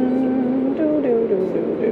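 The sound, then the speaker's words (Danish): Steady motorway road noise from inside a moving car, a continuous low rumble and hiss, with a voice softly singing a string of repeated syllables over it. “der er lidt øh, motorvejs-sound in the background.”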